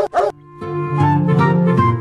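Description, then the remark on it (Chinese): A husky that had been living among a wolf pack at a zoo gives two quick, sharp barks, then a long, high, wavering whine or howl carries on steadily for over a second. No one speaks. “目前呢，园方已经将狗从狼群中隔离开来，倒不是因为害怕二哈把狼群带跑偏了，而是狗和狼在野性上是有区别的，不能因为它二你就欺负它懵懂无知。”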